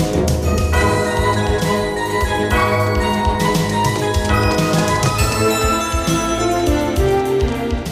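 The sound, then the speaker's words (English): A church bell tolls eight times for eight o'clock with slow, evenly spaced strikes, set within loud, dense orchestral film music, the cue "Setting the Trap", that plays continuously throughout. “Then we hear the church bell ring eight times for eight o'clock.”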